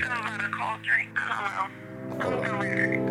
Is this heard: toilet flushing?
no